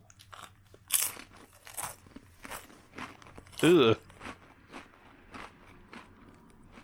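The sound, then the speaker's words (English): Muffled chewing of a crunchy snack well past its expiration date, put whole into the mouth: a series of irregular crunchy bites, with one louder, longer crunch midway, and a brief grunt from a voice. “I just put the whole thing in my mouth.”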